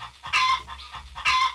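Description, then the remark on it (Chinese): An old hen in Jinhua that laid eggs for seven years and then turned into a rooster clucks in two loud, raspy squawks about a second apart, with a softer cluck between them and no voices. “金华有只老母鸡，默默的生了七年的蛋，突然变成了公鸡。”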